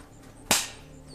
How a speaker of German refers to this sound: Die Frau, die Frau aber, Siora, stellt sich direkt vor Gwenana, blickt ihm tief in die Augen und verpasst ihm eine Ohrfeige.